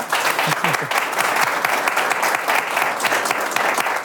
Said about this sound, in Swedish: En varm applåd tycker jag.